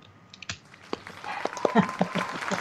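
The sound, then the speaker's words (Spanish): Applause starts as a few scattered claps, then thickens after about a second into a steady patter of many hands clapping at moderate loudness, with a voice faintly mixed in. “¡Aplausos!”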